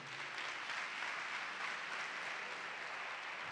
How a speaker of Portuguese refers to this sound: Dá uma salva de palmas ao Senhor aí.